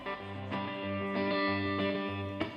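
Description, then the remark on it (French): A heavily distorted electric guitar plays sustained, buzzing chords with a low riff shifting underneath, each new chord struck roughly every half second or so. It is loud, with no voices. “il pose sa prose sur la distorsion d'une guitare.”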